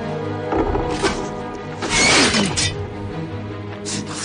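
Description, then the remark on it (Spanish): Swords clash as Bruce and Ducard fight on a frozen lake, Ducard blocking every blow: several sharp metallic strikes at irregular intervals, with a louder flurry of ringing blows midway, over a steady droning background. “Dukar frena todos los espadazos.”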